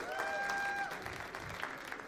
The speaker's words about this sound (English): Let's give the choir one more round of applause.